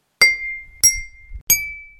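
A collection of drinking glasses in an apartment clink together three times at an even pace, each bright strike leaving a clear ringing tone that fades out. Fairly loud, with no voices.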